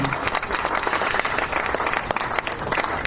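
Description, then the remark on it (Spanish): Audience applause: a steady, dense wash of many hands clapping, fairly loud and sustained throughout with no pauses. “muy agradecido por estos aplausos y por esta deferencia de ustedes de invitarnos y promover nuestro, nuestro espectáculo.”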